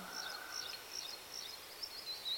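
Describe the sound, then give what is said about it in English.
Soft, high bird chirps repeat throughout at a quiet level over faint outdoor ambience, with no one speaking. “Around you, nature, bird songs, the sound of water, dunes and plains as far as the eye can see.”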